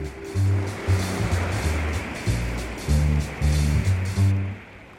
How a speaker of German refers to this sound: Wenn Wellen auf Land treffen, sind Dünen das erste Bollwerk gegen die Brandung.